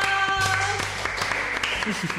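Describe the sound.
A short burst of applause thanking a speaker for sharing, a dense patter of many hands clapping at once, fairly loud and steady throughout, with voices and a faint musical tone mixed in near the start.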